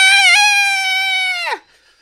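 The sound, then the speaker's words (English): A voice imitates a woman's scream: one loud, sustained high-pitched shriek lasting about a second and a half, then sharply breaking off and dropping in pitch, heard alone. “she just screamed.”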